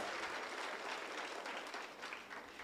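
A crowd applauds steadily, a dense wash of many hands clapping at once with no pauses, sustained and fairly loud throughout. The applause is given to the Lord.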